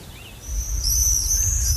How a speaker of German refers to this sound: Boah, was machen die Vögel hier? Die drehen voll durch. Das ist wie so eine Gang, wie so eine Vogelgang hier.